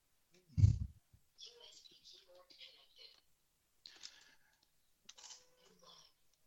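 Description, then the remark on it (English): A heavy thump opens, followed by several short bursts of rapid, clicky keystrokes on a regular USB QWERTY computer keyboard plugged into a USB port, fairly quiet, separated by brief pauses. “So here we just, the child could just type in normal, on normal QWERTY keyboard.”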